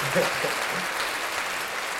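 Hand clapping fills the moment as people do two claps, a dense, steady patter of applause-like claps holding at an even loudness for about two seconds, with faint voices murmuring underneath at the start.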